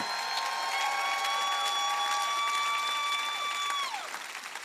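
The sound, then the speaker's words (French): A crowd breaks into a steady, sustained ovation for the souls who come to Jesus, with dense clapping throughout. A long, held high tone rings over it before gliding down and fading near the end. “vous qui applaudissez pour un match de foot ou pour un, artiste, est-ce qu'on peut donner une ovation pour les âmes qui viennent à Jésus?”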